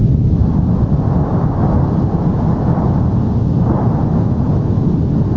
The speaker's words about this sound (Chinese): 岩浆翻腾的声音相当可怕。这座欧洲最高活火山，高度超过三千三百公尺